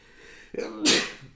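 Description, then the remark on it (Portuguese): A single sneeze: a short voiced intake followed by a sharp, bright burst of noise that fades quickly. “Peço desculpa. Santinho.”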